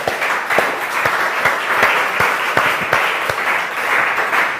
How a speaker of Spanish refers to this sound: Denle un aplauso gigantesco al Señor.